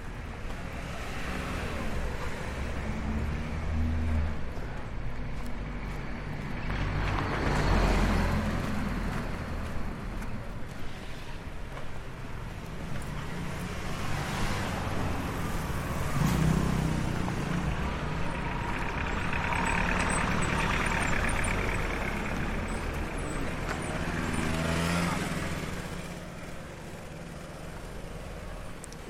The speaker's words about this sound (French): Et puis le bruit de la rue.